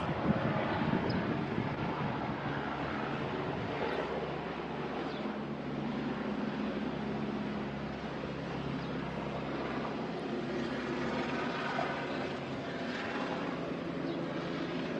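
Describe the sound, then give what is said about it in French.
A helicopter drones steadily overhead, its engine a continuous low rumble with a broad rushing hiss that holds at an even, fairly loud level throughout, with no voices. “Attendez, il n'y a pas une perceuse, mais un hélicoptère.”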